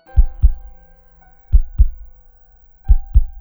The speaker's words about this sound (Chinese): 他听到他的心脏在剧烈的跳动着，